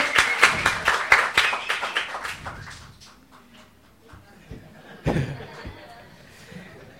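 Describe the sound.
A burst of audience applause for a man called up to tell about a strange dream, dense and loud at first, then thinning to scattered claps within a few seconds, with a brief extra clap and murmuring voices afterward.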